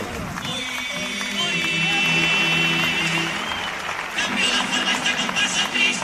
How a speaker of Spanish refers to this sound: El aplauso.